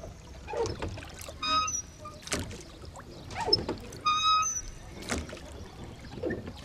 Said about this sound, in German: Das ist die Kahnfahrt in Augsburg. Direkt am alten Stadtgraben und der Stadtmauer gelegen, gibt es hier die Möglichkeit, unter alten Bäumen am Ufer zu sitzen oder seine Liebste mit kraftvollen Ruderschlägen übers Wasser zu chauffieren.